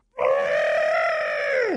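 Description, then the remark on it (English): A person's voice imitates an elephant trumpeting as the opening sound of a mock circus commercial: one sustained, loud, brassy blare lasting under two seconds, holding a steady pitch before sliding sharply downward at the end. “and do the line I'm, I'm lead with the elephant. Oh, yeah. The, the sound.”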